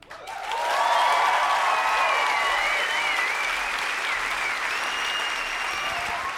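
Sustained audience applause, a dense steady wash of clapping that swells within the first second and holds at a fairly loud level, with some whistling or cheering tones threaded through it, during the live radio show The Cheesecake on Air on Radio Korax.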